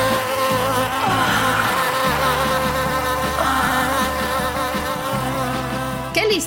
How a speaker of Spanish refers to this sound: inventado por Cleopatra, que consistía en un rollo de papiro que contenía dentro abejas vivas revoloteando, ¿no?